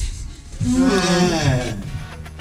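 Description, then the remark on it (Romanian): A person vocally imitates the yawn of their two dogs, one a white Swiss Shepherd: one drawn-out, whiny groan that swells and bends in pitch for about two seconds, fairly loud. “Un sunet pe care îl găsești irezistibil um, Sunetul pe care îl fac câinii mei când cască”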